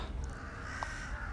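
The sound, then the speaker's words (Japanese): About four crows cawing in a park as they mob a cat, their harsh calls echoing faintly over a steady outdoor background hum, with one short sharper call standing out partway through. “これなんでお話してるかっていうと、今多分カラスの声がめちゃくちゃ響いてると思うんですけど、猫とカラス、仲悪いんですね。”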